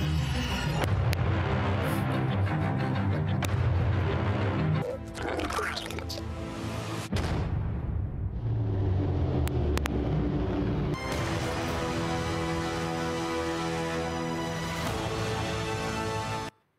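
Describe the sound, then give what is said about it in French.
Deep, dull booming hits of the kind used in film trailers, heavy low thuds repeating through a dense, loud orchestral texture with bright rising tones layered on top. “donc, comme on disait, les, les, les sons sourds”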